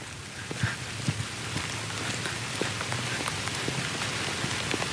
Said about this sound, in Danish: Ej, hvor det regner nu.